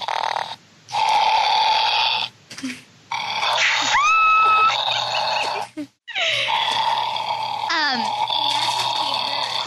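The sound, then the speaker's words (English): A toy Loth cat named Buggles purrs electronically: a loud, raspy rumbling in long bursts broken by short pauses, with a few sliding, chirpy tones mixed in and no one talking. “it purrs.”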